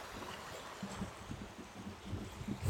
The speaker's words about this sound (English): It's just so beautiful, the sound of this water.